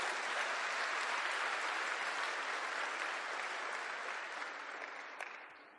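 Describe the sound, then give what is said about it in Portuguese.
An audience applauds for Jesus in a dense, steady wash of clapping that holds strong for several seconds, then gradually thins and fades toward the end, with no voices over it. “Pode dar salvas de palmas para Jesus?”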